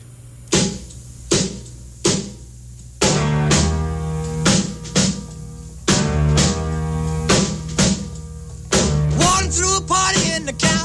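A 1950s rock and roll recording opens with loud, evenly spaced stop-time hits, then the full band kicks in with a driving beat, sustained guitar and piano chords, and a singing voice near the end.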